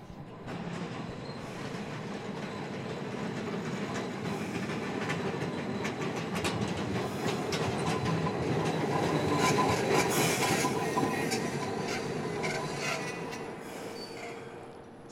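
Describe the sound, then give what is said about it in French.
A small Tampa streetcar rumbles past close by, steady rail clatter and rhythmic wheel clicks building to a peak midway, with faint metallic squeals, then easing slightly as it moves on. No one speaks. “Ce qu'on entend en ce moment, c'est le tramway de Tampa, qui est un petit tramway.”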